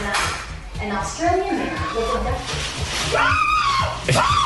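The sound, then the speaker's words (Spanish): A man lets out sudden, high-pitched frightened screams and yelps, loud, amid a noisy, bustling background with other voices, reacting to a prank in which a friend disguised as a doctor comes in with a syringe in his hand. “ahorita entra el, amigo disfrazado como de médico con una jeringa en la mano y este todavía no lo ha visto, pero mire el grito que pega ahorita.”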